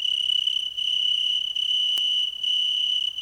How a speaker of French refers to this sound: Le son là en avant et en arrière, pas sur les côtés. Ce sont les plus mélodieux de tous les criquets. La vigne chante.